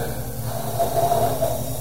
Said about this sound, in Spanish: exhalamos por la boca por un pequeño orificio, 2 segundos,